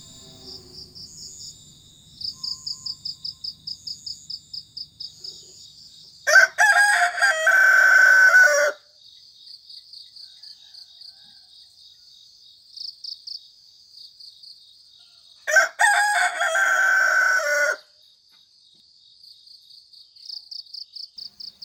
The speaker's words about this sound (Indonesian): hingga koko ayam penghantar fajar telah menyapa hari.